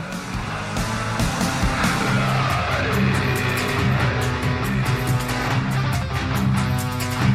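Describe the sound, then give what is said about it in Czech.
A dense, loud metal track with thick, boxy-sounding distorted guitars over rigid, machine-like programmed drums, a steady wall of sound with no vocals or talking. “Kytary mají strašně moc boxiness efektu.”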